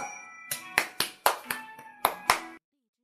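A brief burst of applause welcoming a mentor at the Story Conference (故事大会): about eight sharp, loud claps in a loose, uneven rhythm over a faint sustained musical tone, ending abruptly in silence.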